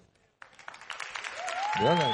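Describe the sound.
A burst of clapping breaks out suddenly and keeps going as a dense patter, and near the end a voice rises above it, calling or cheering.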